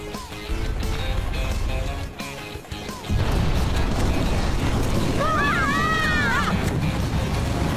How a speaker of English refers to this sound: Here comes the avalanche.